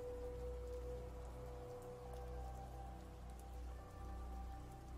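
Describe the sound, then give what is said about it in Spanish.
Steady rain patters on a surface at night, with scattered individual drops ticking sharply over a constant low rumble and a faint sustained hum. No voices. “Escuchamos rebotar las gotas de lo que parece lluvia sobre nuestra superficie.”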